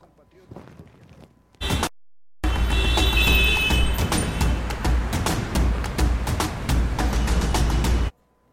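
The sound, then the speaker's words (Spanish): Dense road traffic on the ring road at Atillo 4 roars loudly and continuously, heavy but flowing, with vehicles rushing past and sharp clattering bursts scattered through the steady rumble, after a brief quieter lead-in. “Ahí vemos el sector de la ruta de circunvalación en Atillo 4, donde se ve tránsito, bastante tránsito, pero también bastante fluido.”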